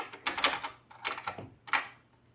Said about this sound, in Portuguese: O pai fez cara de mistério, levou a filha até seu escritório, trancou a porta bem trancadinha, assim.